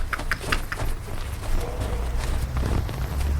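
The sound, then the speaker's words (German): Footsteps walking to the end of a street where vehicles are parked, in a quick, steady rhythm, crisp heel strikes at first, then fading and picking up again over a low outdoor rumble. “Sie schritten zum Ende der Straße, wo Fahrzeuge parkten, und stiegen in einen dunklen Kombi.”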